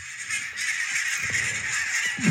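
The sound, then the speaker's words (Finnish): An estimated 4000 barnacle geese flying over Paloheinä, Helsinki, Finland, on a tailwind toward the south, honking continuously in a dense overlapping chorus of many calls, steady and unbroken throughout with no talking, recorded from a terrace. “Mä siis ehkä tässä niinku videolla näkyy, niin mä veikkaan, että tässä näkyy 4000 valkoposkihanhea, jotka niin sanotusti ne löysi, tää on niinku, siis...”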